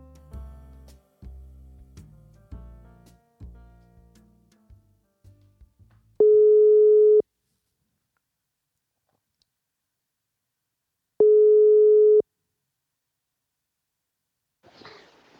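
A phone ringback tone while calling a friend: two long, steady single-pitch beeps about a second each, separated by a long silent gap, clear and loud, preceded by assorted short clicks and tones.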